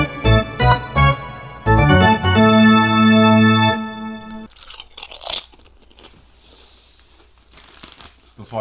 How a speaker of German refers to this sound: zum Beginn nach der Pause so richtig genüsslich eine Handvoll Chips schnurpsen.